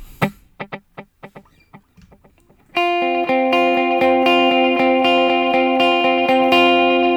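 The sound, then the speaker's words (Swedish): An electric guitar plays a few sparse muted plucks, then rings out a sustained, effected chord whose notes repeat in a steady, layered rhythmic echo from two simultaneous delays, one on quarter notes and one on dotted eighths, loud and upfront. “om man lägger till fjärdedelar och dotted eights så får man den här rytmiseringen som han är känd för, men man får det lite fetare i och med att du har två delayer samtidigt.”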